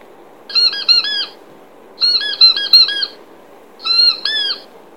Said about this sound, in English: Squeak, squeak, the plastic pink ball goes. With its rhubarb, the custard face, with its fixed, happy grin.